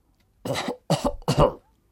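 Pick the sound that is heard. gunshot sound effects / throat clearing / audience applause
throat clearing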